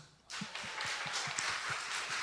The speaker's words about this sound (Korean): 할렐루야. 하나님께 박수.